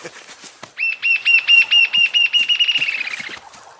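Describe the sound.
An imitation of a jacamar call: a rapid series of about fourteen high, clear whistled notes that speed up and trail off toward the end, heard alone with faint clicks around it.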